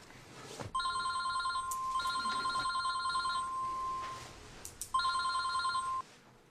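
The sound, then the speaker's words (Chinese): A telephone rings three times as a call is placed, each ring a steady electronic tone of about a second or more with short gaps between, medium-high in pitch and fairly loud, with no one speaking. “我打电话。”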